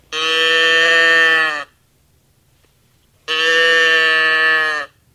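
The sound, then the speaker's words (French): Two drawn-out mechanical moos from a cow-sound box toy, turned over so a bellows drives a free reed, each about a second and a half long, loud and reedy with a steady buzzing tone, separated by a brief silence. “Cet objet qui imite le beuglement d'une vache par le biais d'un soufflet actionnant une hanche libre lorsque vous retournez la dite boîte à meux.”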